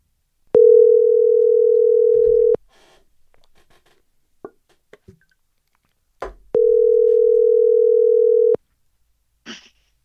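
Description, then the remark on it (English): A phone ringback tone on an outgoing call: two long, steady, fairly loud purring rings of about two seconds each, separated by a quiet pause with faint clicks and rustling. “So, gang, let me call him right now.”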